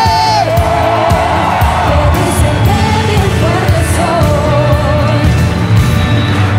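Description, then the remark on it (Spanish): A large audience shouts and cheers loudly and continuously, voices whooping and yelling together in a dense, sustained roar that fills the whole space without pause. “¡Alguien grite!”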